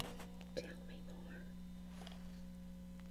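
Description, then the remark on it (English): Soft, breathy whispering into a cup, slightly muffled and hollow, with a low steady hum underneath and one brief tap near the start. “so why don't you whisper something in the cup, and I'm going to listen real close, and, okay.”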